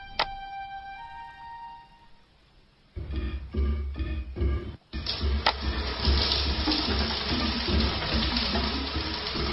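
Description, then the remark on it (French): A faint tonal hum gives way to water starting up, a few bumps and sputters, then a steady, loud rushing spray of shower water that continues to the end. “Quand il est sûr qu'elle s'est déshabillée, il vient lui-même tout nu dans la douche avec l'intention de pousser plus loin ses investigations.”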